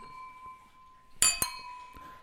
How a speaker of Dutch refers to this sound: Wij drinken nog even door, zoals je kan horen. Voor de laatste keer, jongens, we gaan het glas heffen. En dan zeggen wij klinken.